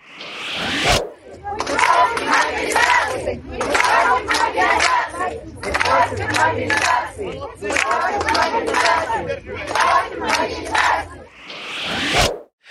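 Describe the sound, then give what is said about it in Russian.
A crowd of women shouting pacifist slogans in unison at a rally against mobilization in Makhachkala, Dagestan, loud rhythmic chants repeated over and over with bursts of cheering at the start and end. “Митинги были преимущественно женские, а, собственно, с пацифистскими лозунгами и всем прочим, и вот как это все звучало.”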